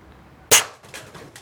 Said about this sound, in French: Donc vous voyez, quand je tire, vous n'avez jamais remarqué un ricochet. Hein, c'est du pointu. Quoi. Donc il faut rester très calme. Si je le vise derrière, je vais le blesser. Si je vise devant, il faut que je vise la tête.